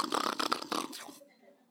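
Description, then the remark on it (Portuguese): A voice imitates a snore: one rough, raspy, rattling breath lasting about a second before trailing off into quiet, mimicking a man who fell asleep after praying for ten minutes. “Rapaz, o cabra orou dez minutos e tá, já, pum, já dormiu.”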